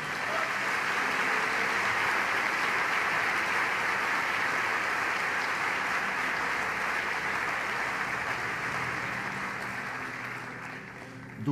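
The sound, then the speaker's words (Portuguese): A large crowd claps steadily and loudly for the Lord for over ten seconds, a dense wash of applause that tapers slightly toward the end, with no one speaking over it. “Você pode dar um aplauso ao Senhor?”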